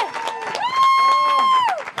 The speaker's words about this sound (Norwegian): Kan vi få en stor, stor applaus